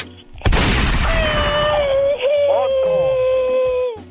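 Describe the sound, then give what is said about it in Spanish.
A boy vocally imitates machine gun fire: a loud, rapid, noisy rattling burst that stretches into a long, sustained, strained vocal yell lasting several seconds. “pues como tú no pagas las balas, otro.”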